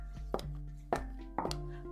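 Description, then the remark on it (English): Three sharp, hollow knocks on a door, spaced a little unevenly, ring out over a steady low hum, with no one talking. “Suddenly, there was a knock at the door.”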